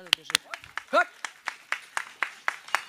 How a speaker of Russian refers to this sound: Давайте похлопаем ей